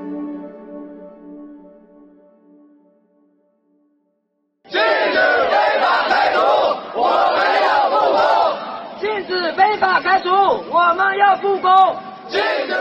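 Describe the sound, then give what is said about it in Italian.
A crowd of workers from a welding-machinery factory in Shenzhen, China, in August 2018 chants protest slogans in unison, loud, with rhythmic shouted bursts that grow more clipped and punchy toward the end, following a short fading tonal sound and a brief silence. “Gli slogan che state sentendo sono quelli dei lavoratori di una fabbrica che si chiama Jesic e che produce macchinari per la saldatura i lavoratori stanno protestando”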